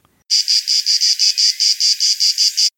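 An ash cicada (Cicada orni) calls loudly, a harsh buzzing broken into about a dozen rapid, regular pulses for roughly two and a half seconds, with no voices.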